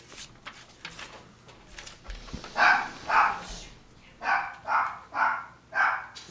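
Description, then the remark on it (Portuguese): Dogs bark in a quick series of sharp, evenly spaced yaps, two early and then four in steady rhythm, fairly loud over a quiet background with no talking. “Os cachorros estão participando hoje.”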